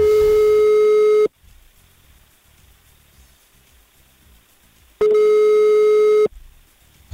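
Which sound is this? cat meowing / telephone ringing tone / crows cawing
telephone ringing tone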